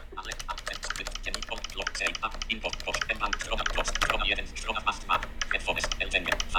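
Fast, steady typing on a Logitech MX Mechanical computer keyboard, a dense run of crisp key clicks and clacks that continues without pause throughout.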